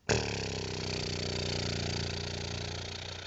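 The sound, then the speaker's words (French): A steady, buzzing lip trill held for about three seconds as a vocal exercise, the lips fluttering evenly at a constant pitch with just enough air to keep it regular, fairly loud, like a small idling motor, with no talking. “Et comme je vous disais tout à l'heure, juste avec juste ce qu'il faut d'air pour faire vibrer l'élève, en essayant de le faire de manière euh, régulière et, en, et le plus longtemps possible, on fait des...”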